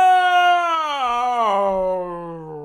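A drawn-out, eerie wail with a rich, tonal quality that wavers and slowly slides downward in pitch, trailing off like a long yawn. It is loud and heard alone.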